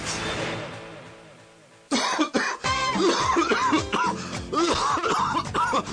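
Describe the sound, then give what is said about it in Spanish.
After a brief fading hum, a smoker's harsh, rattling cough erupts and keeps going in a long, rough fit of repeated hacking bursts with throat clearing, no talking. “Oiga, ¿usted sabe que es bueno para tos? Para esa tos, mijito, dejar de fumar.”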